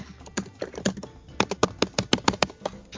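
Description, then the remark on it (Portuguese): Loud, rapid keystrokes clatter on a computer keyboard, a dense irregular burst of sharp clicks that grows heavier and more forceful toward the end, with no voices. “Quem é que tá batucando aí, cacete? Eu tô digitando, arrumado.”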